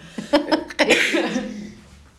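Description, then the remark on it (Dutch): A small cough made of a few quick throat bursts that build into one fuller cough, then trail off into a soft breath. “Sorry, dat kuchje.”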